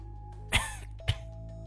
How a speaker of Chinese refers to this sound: 自己倒了一杯水，坐在床上，轻微的咳嗽了几声。